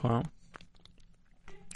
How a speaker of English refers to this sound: We're chewing. We're chewing. Definitely good.